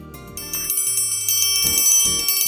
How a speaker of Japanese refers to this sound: あーいい音ですねこれ小学校の頃ねあの楽器とかできない子に渡されるっていうので結構屈辱の楽器だったんですけどトライアングルということでね